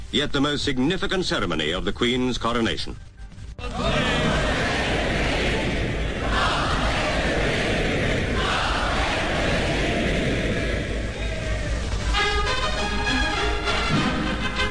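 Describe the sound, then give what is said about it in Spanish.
A large crowd cheers at the coronation of Queen Elizabeth II, the first televised coronation, a loud, steady roar of many voices and shouts that swells for several seconds, framed by brief tonal, voice-like passages at the start and end. “Lo que escuchamos es la coronación de Isabel II, la primera coronación transmitida por televisión.”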